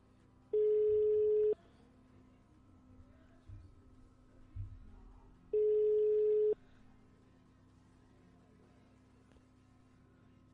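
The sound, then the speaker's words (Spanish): A phone ringback tone sounds twice, each steady mid-pitched buzz lasting about a second, separated by roughly four seconds of quiet line hiss while the call goes unanswered. “Último tono,”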